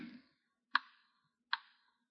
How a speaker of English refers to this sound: The clock kept ticking.